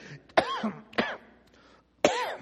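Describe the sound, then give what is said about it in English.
Three harsh coughs in quick succession from a person whose cough drop went down wrong, each a sudden loud burst with a raspy, throaty edge, separated by brief pauses of near silence. “Oh, that cough drop went down wrong.”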